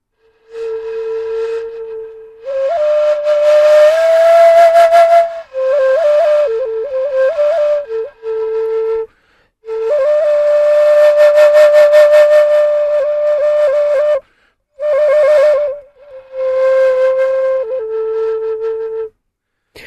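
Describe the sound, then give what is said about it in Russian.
A shakuhachi flute, made of bamboo that grows close to the ground, plays slow, breathy phrases of long held notes that bend and slide between pitches, with airy gusts on the attacks and brief pauses between phrases. No one speaks. “Так вот это вот вся сякухати.”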